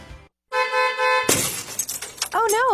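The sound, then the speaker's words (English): A car horn blares steadily, then a windshield smashes in one loud crash with scattered tinkling fragments, followed by a brief wavering voice at the end. “my windshield is broke.”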